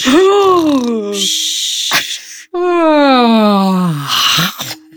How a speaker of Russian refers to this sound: Все сейчас зевнули. Знаете почему? Так работают зеркальные нейроны. Зевота заразна.